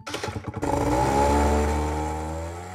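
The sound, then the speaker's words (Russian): A small moped engine sputters briefly, then revs up into a loud, steady buzzing whine that holds before easing off slightly. No voices are heard. “А еще купил мопед.”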